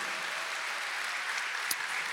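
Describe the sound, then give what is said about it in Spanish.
An audience at a church service applauds God together in a steady, dense wash of clapping that holds an even level throughout, with one sharper clap standing out near the end. “¿Cuánto dan un aplauso a Dios por eso, amado hermano?”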